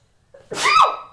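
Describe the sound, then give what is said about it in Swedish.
A single sneeze: a short inhaled build-up, then a loud, breathy burst with a tonal vocal edge that fades quickly. No talking during it. “Prosit.”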